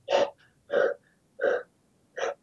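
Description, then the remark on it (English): A person imitates a dog, a nine-year-old Akita named Sumo, breathing heavily as it sits when it's hot out. There are four loud, breathy huffs in a slow, steady rhythm with brief pauses between them, and no talking. “And when it's hot out, he just kind of sits there and he breathes.”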